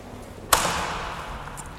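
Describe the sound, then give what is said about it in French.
A double door, the central one of three doors and the only one that opens, swings inward with one sharp, loud clunk that rings out and fades slowly, followed by a couple of faint light clicks. No one speaks. “Vous voulez ouvrir la porte pour nous, excusez-nous.”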